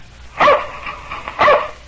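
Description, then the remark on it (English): Tige, Buster Brown's dog, barks twice, two sharp barks about a second apart with a faint hum in between and no talking. “That's my dog Tige. He lives in a shoe.”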